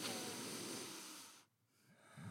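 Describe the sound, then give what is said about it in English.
A person demonstrates deep breathing through the nose: one long, loud, airy breath lasting over a second, a brief pause, then the start of another breath. “Um, and then and then I also realized like I had to keep breathing much deeper. It was like”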